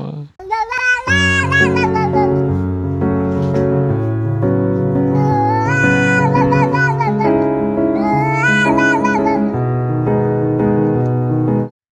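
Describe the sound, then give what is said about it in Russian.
A woman imitates a cat with long, wavering meows, rising and falling in pitch several times, loud over a steady tonal backdrop. “О, ты сейчас сказала, как кот.”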